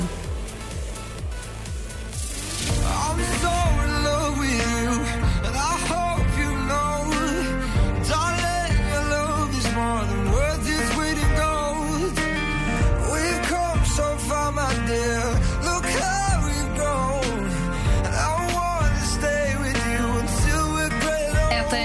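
A pop song plays alone: a soft, sparse opening for a couple of seconds, then the full arrangement kicks in with steady beat, bass and melody at an even, fairly loud level.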